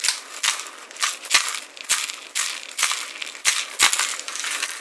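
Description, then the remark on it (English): A handheld shaker percussion instrument is shaken during a sound check in a steady rhythm, each stroke a bright, gritty rattling burst about twice a second, fairly loud with no voices. “I think that should be one shaky shaky thing that makes one that sound.”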